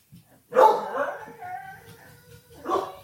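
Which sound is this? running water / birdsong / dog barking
dog barking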